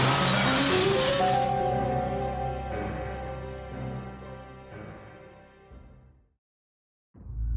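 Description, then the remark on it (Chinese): A glass cabinet hit by gunfire shatters in one loud, bright crash, followed by ringing, tinkling shards that slowly fade over several seconds into silence before another faint sound begins at the very end. “但同一时间，他身后的玻璃柜也被子弹打中，玻璃碎裂开来。”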